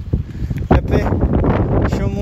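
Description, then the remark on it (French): A strong tailwind buffets the microphone in a loud, continuous rumble during a final uphill climb, surging in gusts with a sharp blast near the start and steady roaring after. “le vent me, pousse dans le dos et assez, là, même assez fort, donc c'est plutôt cool.”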